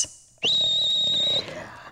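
A single sharp, high-pitched whistle blast, held steady for about a second at a constant pitch, loud, then cutting off abruptly into a quiet background hum.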